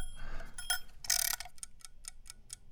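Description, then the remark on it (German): An egg timer ticks in a quick, steady rhythm, about four sharp clicks per second, with a brief brighter rattling burst near the start and no voices. “Naja, und, ach Moment, die Eieruhr habe ich schon wieder vergessen.”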